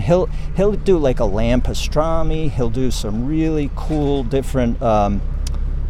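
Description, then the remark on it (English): A tractor hauling grapes drives past, its engine rumbling steadily in the background, a low continuous drone that stays under a man talking for the whole stretch. “Here comes the tractor right now with some grapes.”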